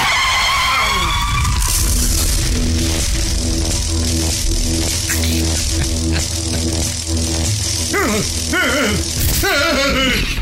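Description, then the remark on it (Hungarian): A loud, continuous roar of a motorcycle engine with harsh tire skidding throughout, rising into sharp, warbling squeals near the end, intense with rattling noise, as the motorcycle crashes into a high-voltage electricity pole. “Hát, én neki mentél a nagy feszültségű villanyosztopnak.”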